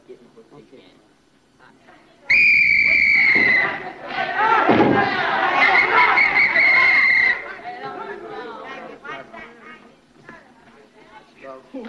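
A referee's whistle gives one long, loud, shrill blast lasting several seconds to start a basketball game, cutting over a noisy crowd and people shouting in the background.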